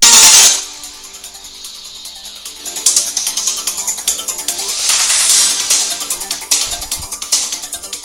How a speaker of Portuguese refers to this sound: então não vai demorar muito essa musiquinha, tá gente? Só ouve pra relaxar um pouco.